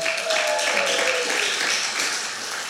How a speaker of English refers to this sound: If you're married here, married people, why don't you just give a hand clap, married people?